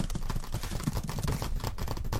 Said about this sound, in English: I don't know if you could hear that typing.